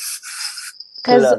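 A single sneeze: a harsh, breathy rush of air, a brief pause, then a short voiced burst from the throat. No other talking.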